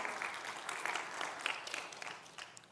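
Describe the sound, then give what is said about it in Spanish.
An audience applauds the word of God, a dense, steady patter of many hands clapping that holds for a few seconds and then begins to taper off, with no voices over it. “Pero yo sé que usted está aplaudiendo la palabra de Dios, pero es que si quieren aplaudir, aplaudan, pero en esos momentos no sé si quedarme callado”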